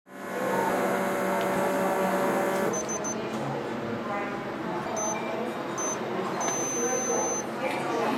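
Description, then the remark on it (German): An electronic blood pressure monitor's small pump whirs and buzzes steadily as it inflates the cuff to measure blood pressure as a final check, running continuously for several seconds with a slight change in pitch partway through. “Nachdem ich diese Hürde überwunden habe, wird als letztes noch mein Blutdruck gemessen.”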